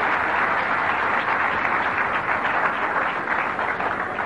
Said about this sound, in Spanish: Un aplauso